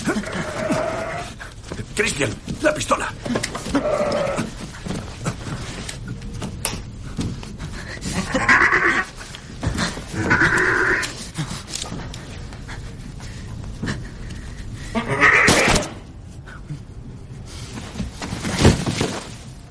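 A ram bleats loudly in three or four strained calls, mixed with scuffling, thumping and clattering as it struggles while being caught and held by its horns.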